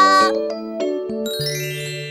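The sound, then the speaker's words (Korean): A bright three-note chime rings out in quick succession, ding-dong-dang, marking the correct answer (Jesus) to a question about the saviour, with the final tone ringing on clearly. No voices accompany it. “그 구세주가 누구일까? 예수님! 딩동댕.”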